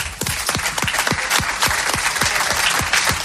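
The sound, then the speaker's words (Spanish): Loud, steady audience applause with a dense wash of many hands and a regular rhythmic beat running through it, roughly three or four claps a second, with no voices over it. “Un aplauso para ellos.”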